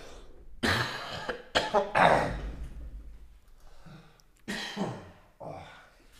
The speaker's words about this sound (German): Oh, ist so ein trockener Husten, ist nicht gut, ey. Der sitzt tief.